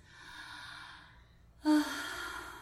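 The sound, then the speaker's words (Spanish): A person demonstrates a connected-breathing exercise, breathing through the mouth: a long, airy breath that fades, then a sudden, louder, forceful whale-like exhale with a voiced edge, with no talking. “Ese es el sonido que hay que hacer. Ah, como una ballena. Como si respirando. La respiración conectada.”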